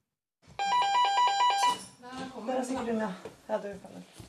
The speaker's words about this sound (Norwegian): Hun som akkurat ringte på døra